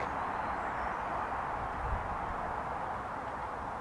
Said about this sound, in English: and as the wind begins to die down, we can still hear in the distance the sound of traffic, commuters making their way home from busy days at work.